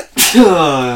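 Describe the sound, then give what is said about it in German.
A single loud sneeze: a sudden hissing burst of breath that trails off into a drawn-out voiced tone, with no talking around it. “Und falls … jetzt niesen sollte, tut es mir echt leid.”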